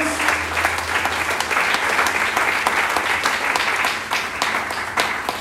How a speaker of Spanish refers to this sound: Alguien dice amén, alguien le aplaude fuerte a nuestro Dios.